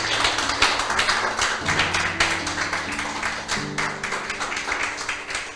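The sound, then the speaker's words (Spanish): A church audience applauds to the glory of the Lord, dense overlapping claps forming a continuous loud patter, with sustained low organ or keyboard chords shifting underneath. “Denle un aplauso a la gloria del Señor.”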